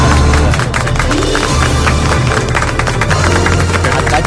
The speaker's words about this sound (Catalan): Un aplaudiment.